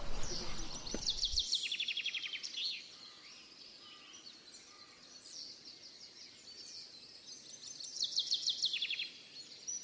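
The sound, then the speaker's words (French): Several birds sing at once, with bright, rapid trilled phrases and scattered high chirps overlapping in a steady chorus; a soft low thump sounds at the very start. “Peu à peu, le concert des oiseaux remplaçait le silence de la nature.”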